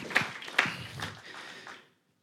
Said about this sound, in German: Ja, das ist ein Applaus wert.